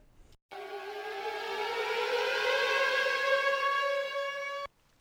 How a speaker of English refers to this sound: We're going to end it with sirens again.